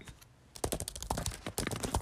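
Rapid keyboard typing, a dense run of crisp clicking keystrokes starting after a brief quiet moment, fairly clear with an uneven, busy rhythm.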